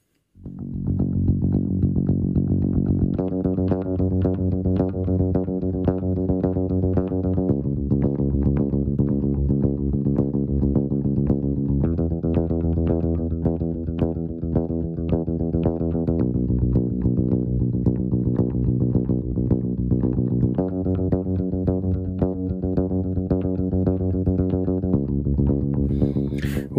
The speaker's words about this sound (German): ich habe mal eine isolierte Bassspur